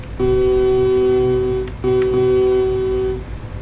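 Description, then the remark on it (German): A vehicle racing up behind a truck blares its horn twice in long, steady blasts, each lasting well over a second, loud over a low engine rumble. “Rast der mir da hinten rein?”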